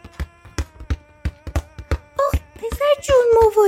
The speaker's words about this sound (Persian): اینجا بچه های زیادی هم هستن که دارن بازی میکنن